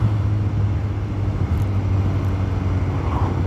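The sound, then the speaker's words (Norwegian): Steady road traffic rumbles, with a low droning engine hum from a passing moped and a BMW car that holds constant throughout, no voices and no breaks in the noise. “Å ja, der er faktisk en moped, ja. Og så er det en BMW.”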